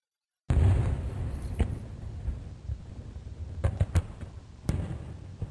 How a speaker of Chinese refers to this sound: 砰啪！显然，在帐篷里放烟花，这是行不通的。